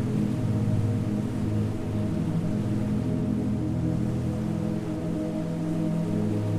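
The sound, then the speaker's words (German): A steady, continuous rushing roar of the Pilwa waterfall on the Pilwa river, falling 17 metres at the foot of the castle town of Jeize, heard from a distance, holds an even level throughout with low droning tones running beneath it and no voices. “Ein bestimmendes Rauschen ist aus der Ferne zu vernehmen.”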